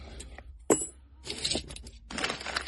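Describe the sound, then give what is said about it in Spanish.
Metal keys jangle and clink in short bursts, with a sharp knock near the start, as someone sifts through a pile of keys, coins and other small objects. No one speaks. “Más llaves.”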